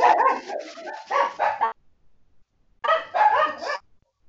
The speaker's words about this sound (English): Sorry about my dogs right now. Oh, you're good. They're, yeah, I hear somebody at the door. Sorry.